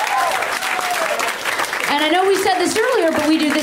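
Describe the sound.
A live show audience applauds loudly and steadily for a few seconds, dense clapping filling the space while voices whoop and cheer over it.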